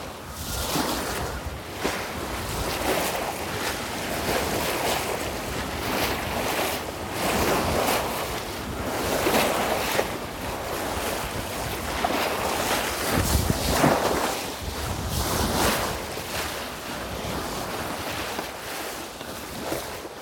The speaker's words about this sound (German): Der Wind und die Wellen und es war relativ laut und es, es war cool.